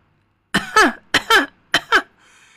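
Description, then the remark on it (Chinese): Three quick pairs of voiced coughs, each pair a sharp burst followed by a second with a falling, throaty pitch, loud and evenly spaced, performed by a voice imitating a small white bird coughing from pipe smoke rings as it runs. “白色的小鸟一边咳嗽一边跑，可是黑圈圈已经把它漂亮的白衣服弄脏了。”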